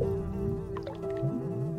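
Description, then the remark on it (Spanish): Flies buzz steadily, a continuous droning hum that wavers slightly in pitch for a couple of seconds, with no voices. The flies swarm with maggots and larvae over a bathtub overflowing with foul, dark liquid in a bathroom. “La tina rebalsa de un nauseabundo líquido oscuro, en el que pululan gusanos, moscas y larvas.”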